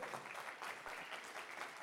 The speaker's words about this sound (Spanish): Vean un aplauso fuerte, Señor. Déselo fuerte.